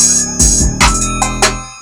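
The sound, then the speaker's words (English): A loud hip-hop beat plays back with heavy sustained bass and sharp, evenly spaced drum hits cracking through, a steady groove with no voices over it. “That song right there. I'm gonna play that one more time, just one more time, just for the camera.”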